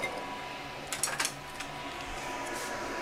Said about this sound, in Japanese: そんなアホみたいなことを言ってるうちにパスタが茹で上がったのでこれを皿に盛って食べようと思います